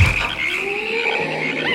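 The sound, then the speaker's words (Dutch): A dense chorus of frogs croaking steadily and fairly loudly, their overlapping calls forming a continuous buzzing drone with no pauses and no voices. “Wat is dat nou voor gekwaak?”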